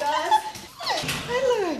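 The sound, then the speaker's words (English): A small Brussels Griffon dog whimpers and yips in a few high, wavering, moderately loud whines, with a short pause between the cries, inside a suburban house in Adelaide, South Australia. “being a celebrity pooch has everything to do with a former lawyer in Massachusetts and a couple of Brussels Griffon in Australia.”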